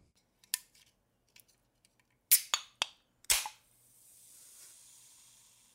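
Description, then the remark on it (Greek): A drink can being opened: a few faint clicks and taps, then sharp metallic cracks as the tab pops, followed by a soft fizzing hiss that trails off. No one speaks. “Πάμε να ανοίξει το κλασικό σου καν.”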